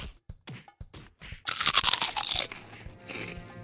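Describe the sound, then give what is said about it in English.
Several sharp crunches in quick succession as crunchy, crispy black legumes are eaten, then a louder stretch of crackly, crispy chewing that fades to softer munching; no voices. “Crunchy, crispy black legumes harvested from precious indigenous land with no proceeds going to the people who live there.”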